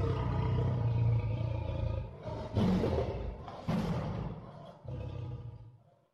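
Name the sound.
tiger roaring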